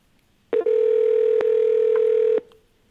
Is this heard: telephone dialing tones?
yes